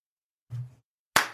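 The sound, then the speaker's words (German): Two separate hand claps with a pause between them: the first dull and muffled, the second a sharp, bright smack. No voices are heard. “Applaus dafür.”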